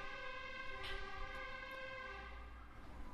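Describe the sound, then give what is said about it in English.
A fire engine siren blares loud, a steady, harmonically rich wail that holds for the whole stretch without pause, passing by a house near the fire station shortly after rain, with no one talking over it. “Yeah, because the the fire station is right oh. near the house here, right? So they always go through here. Innsbruck, planes, ambulances, firemen.”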